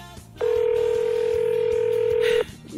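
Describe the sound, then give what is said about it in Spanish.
A single steady electronic ringing tone from a telephone line, calling the Cristo Misionero bookstore, sounds for about two seconds, loud, then stops unanswered. Faint low background murmur sits underneath. “No conviene ese, libre, ese teléfono donde atienden cuando quieren.”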